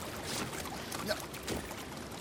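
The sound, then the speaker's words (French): Water sloshes and laps steadily around a small boat moving along as it arrives at the Radio Rock boat, a continuous moderately loud wash with a few brief splashes, no clear voices on top. “C'est bon, regarde, le bateau de Radio Rock est là-bas, on est arrivé.”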